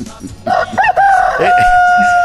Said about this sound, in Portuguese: Esse é o galo velho cabaré. Esse é o galo velho cabaré. Não, não deixa uma galinha em paz.